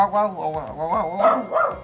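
A dog barks and yelps in a quick, continuous run of high, wavering calls, fairly loud, with no clear pause between them.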